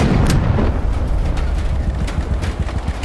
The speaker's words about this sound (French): Je me rappelle si bien ce jour où il m'a raconté sa terrible chute. L'avion a explosé et puis ce fut le silence.